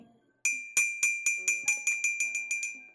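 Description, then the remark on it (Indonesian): A street food vendor's call signal, as used by bakso or mie ayam (chicken noodle) sellers: about a dozen bright, ringing metallic clinks struck in a quick, steady rhythm, clear with nothing else in the background. “Kalau nggak jualan bakso, jualan mie ayam.”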